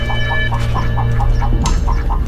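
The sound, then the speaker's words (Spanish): A hen clucks in a quick, steady series of short, evenly spaced notes over a constant low hum with no voices. “La gallina, moribunda, buscó con el pico los granos y empezó a seguir a Stalin.”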